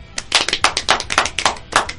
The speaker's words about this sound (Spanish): Esto es Cazuela Cósmica. El aplauso.